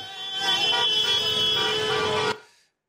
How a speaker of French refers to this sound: Sur les Champs-Élysées, encadrés par un important dispositif de sécurité, les supporters auront donné de la voix jusqu'à tard dans la soirée sans incident majeur, à grand renfort de drapeaux et de klaxons.